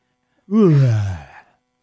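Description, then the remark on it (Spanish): One loud yawn from a woman, voiced and breathy, sliding downward in pitch over about a second before trailing off into quiet. “Bosteza como un león.”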